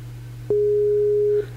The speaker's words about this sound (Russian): Э, да, да, это входит в план, гудки, все отлично, ничего, все, э, все по плану. Так и задумано.